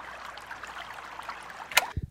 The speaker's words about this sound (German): Der Fluss strömt ruhig dahin.